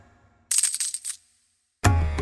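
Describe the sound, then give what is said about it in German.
A small handful of copper coins clink and jingle together in a quick, bright cluster lasting under a second, followed by a short silence before a fuller, heavier sound begins. “Und jeden Tag verdiente der alte Grasschneider nicht mehr als drei Kupfermünzen.”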